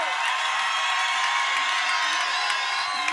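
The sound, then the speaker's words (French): A crowd cheers and whoops loudly and continuously, a dense wall of shouting voices filling the space, with scattered high yells rising above the roar. “alors faites du bruit pour lui, s'il vous plaît.”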